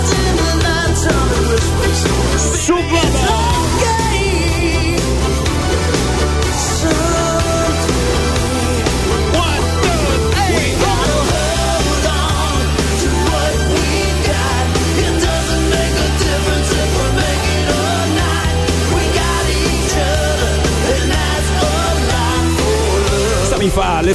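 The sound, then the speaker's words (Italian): A rousing boxing movie theme, a piece of the music from Rocky, plays loud and continuous for the whole stretch, with full orchestral texture and a steady, driving bass pulse and no talking over it. “pezzo di quella di Rocky, viene voglia di prendere a pugni qualcuno.”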